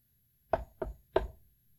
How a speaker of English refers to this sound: devil came a knocking.